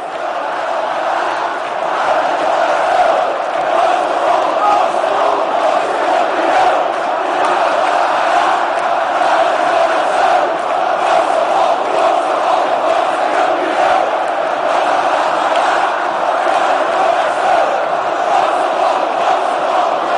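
A large crowd of football fans chants together in a dense, steady roar of many voices, holding an unbroken, loud level for the full twenty seconds with no single voice standing out.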